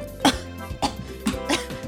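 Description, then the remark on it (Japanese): A few harsh, throaty coughs in quick succession from an irritated throat, with short pauses between bursts and no talking; in an office in Fukuoka, Japan, on a day of heavy yellow dust and dry air. “すいませんなんか今黄砂が 待ってるまだ待ってるんですかねただ単にちょっと乾燥してる感じが しますけれども無理やりやな本当に今喉に来ちゃいましたね多分黄砂のことをイメージしてたから体が反応しちゃったんですかね”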